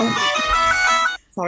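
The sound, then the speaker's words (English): A mobile phone rings with a bright, melodic electronic tone for about a second, fairly loud, then cuts off. A person briefly speaks right afterward. “that was my phone.”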